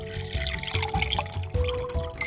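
Sparkling water pours steadily into a glass to be drunk, a continuous gurgle with a fizzy hiss on top, lasting a couple of seconds with no voices.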